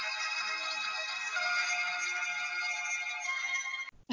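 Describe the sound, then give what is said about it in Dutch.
A short snippet of bright, tinny electronic music plays steadily at moderate volume for about four seconds, then cuts off abruptly. No one speaks over it. “Monteren nou zomaar een stukje muziek in”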